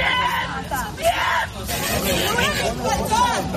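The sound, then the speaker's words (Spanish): A large street protest crowd of thousands of people in Tel Aviv at night roars continuously, with overlapping shouts, cheers and raised voices forming a dense, steady hubbub throughout. “Y es que esta pasada noche miles de personas, como escuchas, han vuelto a salir a las calles de Tel Aviv y de otras ciudades del país para exigir, por un lado, la liberación de los rehenes, sí, pero también para demandar nuevas elecciones generales.”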